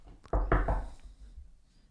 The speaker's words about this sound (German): Hallo? Tür geht auf.